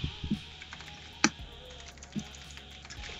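Sparse, irregular clacks of typing on a mechanical keyboard, with one sharper, louder keystroke among quieter taps, with no talking.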